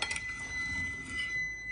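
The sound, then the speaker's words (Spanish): A microwave oven beeps with a steady, high-pitched electronic tone that holds for a moment over faint background noise, moderately loud. “Ay, microondas.”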